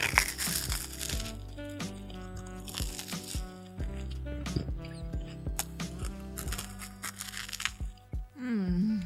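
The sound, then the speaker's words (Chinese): Crisp Bestie brand toast being bitten and chewed as a late-night snack, a run of irregular crunchy snaps and crackles over several seconds, set against a steady tonal background with no clear speech. “别听在这里吃吐司给大家听，这样应该是不会太过分了哈。”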